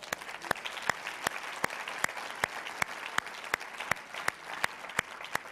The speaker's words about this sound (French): Wow! Wow! Je pense que les autres, ça mérite une main d'applaudissement.